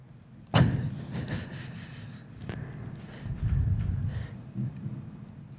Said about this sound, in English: And that's when you hear the door open.